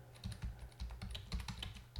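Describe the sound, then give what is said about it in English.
Rapid, uneven keystrokes clatter on a computer keyboard, a steady run of crisp clicks with occasional heavier key presses, no voices. “I'm just typing this out as I talk.”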